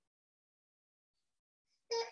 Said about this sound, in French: la petite fille qui pleure, désolé.